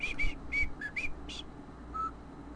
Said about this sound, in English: I can do songs with it. Uh, Guys, I'm so fucking talented. I can whistle with my goddamn teeth.